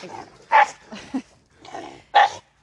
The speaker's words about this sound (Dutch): Het hondje begint te blaffen, want het ziet een ander hondje.